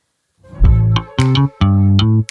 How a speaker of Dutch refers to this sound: Ehm, een fantastische rubriek 1. Daar hoort een jingle bij.